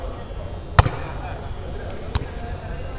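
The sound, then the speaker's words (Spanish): A sharp, loud thump of a ball being struck hard by a player's foot as he takes a shot in a futsal match, followed about a second later by a fainter knock, over a steady hum of a crowd. “En el GC, cuidado porque si le cae a la izquierda le puede pegar, saca el disparo.”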